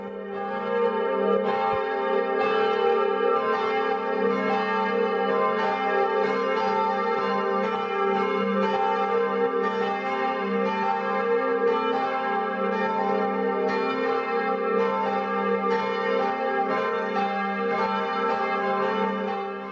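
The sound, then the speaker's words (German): The five bells of the Catholic branch church St. Bonifatius in Winshausen, part of Hohenroth near Bad Neustadt an der Saale, Lower Franconia, ring the 12 o'clock midday peal, their overlapping tones forming a dense, steady wash of clanging strikes and long humming overtones that stays loud throughout. Three were cast in the early 1950s by Heinrich Humpert in Brilon. “So kräftig klingen die fünf Glocken der katholischen Filialkirche St. Bonifatius in Winshausen, einem Ortsteil der Gemeinde Hohenroth.”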